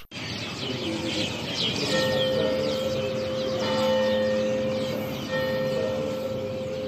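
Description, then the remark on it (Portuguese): Church bells ring with steady, sustained tones while a dense chorus of birds chirps and sings throughout in the main square of Madalena on Pico Island in the Azores, an open outdoor ambience with no voices. “Os sinos e a passarada que se ouvem no principal largo de Madalena.”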